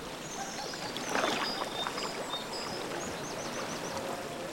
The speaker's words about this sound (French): C'est parti pour deux heures de pagayage ou de farniente bercée par le rythme de la seille. Vous entendez le clapotis de la rivière